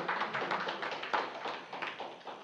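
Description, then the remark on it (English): A crowd applauds steadily for a couple of seconds, a dense patter of many overlapping hand claps at an even, moderate loudness with no voices over it. “I haven't had an applause in a long time.”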